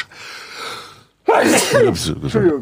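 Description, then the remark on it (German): A soft, breathy intake of air, a brief pause, then a loud sneeze that bursts out sharply and trails off in a couple of voiced, sputtering bursts. “So, Gesundheit.”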